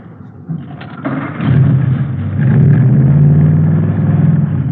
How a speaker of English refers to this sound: Mallory ignition, milled heads, twin Wakefields. Here, let me start it up for you. Okay. 120 horses under there.